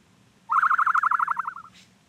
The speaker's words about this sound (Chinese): 他听到了鸟叫声。